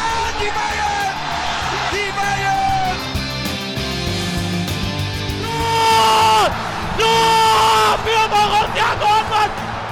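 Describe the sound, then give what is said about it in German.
A big crowd roars and cheers wildly after a goal that makes the score 3–2, a dense wall of yelling and whooping with sustained shouted tones, swelling even louder in bursts toward the end. “3 zu 2! Hier rast alle aus!”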